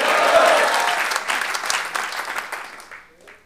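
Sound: audience applauding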